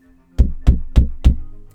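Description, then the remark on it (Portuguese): Four firm knocks on a wooden door, evenly spaced, each a sharp hollow thud with a brief resonant tail, and no voices. “haviam encontrado um castelo muito grande e resolveram bater na porta.”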